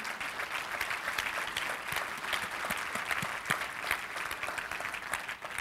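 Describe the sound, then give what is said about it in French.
An audience claps steadily in sustained applause, a dense wash of many overlapping hand claps with no individual voices standing out, holding an even loudness throughout. “Est-ce qu'on peut juste donner une main d'acclamation pour les encourager?”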